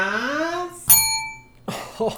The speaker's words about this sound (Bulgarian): Готово. Ево е звънчето.